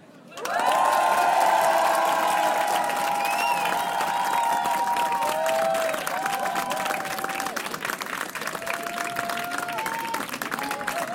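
A crowd bursts into loud, dense applause welcoming a band on the show Côté Club, mixed with sustained cheers and whoops that rise over the clapping, then keeps clapping steadily at a slightly lower level.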